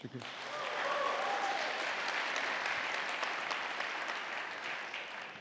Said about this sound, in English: You're going to hear it from the congregation right now as we give you a big round of applause.